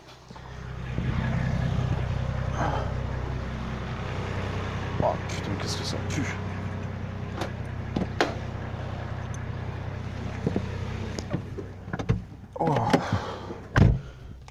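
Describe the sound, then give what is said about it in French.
A Nissan Patrol SUV engine idles in front of a car, giving off exhaust fumes, with a steady, deep rumble throughout, joined by a few sharp clunks and brief rustles toward the end and occasional faint voices. “mais alors l'autre, il est en train de me laisser tourner son Nissan Patrol là devant la voiture.”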